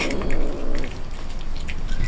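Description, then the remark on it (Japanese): A black cat meows, one drawn-out, wavering cry in the first second, followed by softer rustling background noise with no one speaking. “黒猫ちゃん追っかけたりなんかしてごめんねもしまた会うことがあったらカスクルートにマカロンを負けつきであげるからじゃあね”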